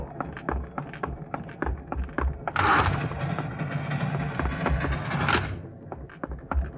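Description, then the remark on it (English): Quick, evenly spaced footsteps hurry along aboard a moving train over a low rumbling background, with a louder rushing swell in the middle as the steps keep coming, steady. “The sound of steps behind you makes you turn.”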